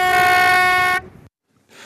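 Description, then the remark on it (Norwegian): A loud, steady blast from the whistle of the tourist boat Kong Haud on Randsfjorden, a single sustained tone lasting about a second with rich harmonics, then cutting off into quiet before faint background noise returns. “Det var fløyten fra turistbåten Kong Haud på Randsfjorden, som skal settes i rute i mai neste år.”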